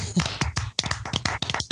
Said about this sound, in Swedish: Ja, sådana där grejer, det kräver en applåd tycker jag. Verkligen.